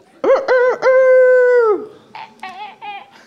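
A loud rooster crow: two quick clipped notes, then one long drawn-out call that falls away at the end, followed by a few fainter, choppy vocal sounds.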